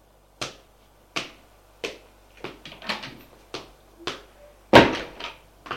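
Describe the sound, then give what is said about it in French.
Doors slam and open as people run: a series of sharp bangs and knocks at uneven intervals, with one heavier slam near the end and quick lighter clatters between. No one speaks. “Il entend des portes qui claquent, qui s'ouvrent, des gens qui courent.”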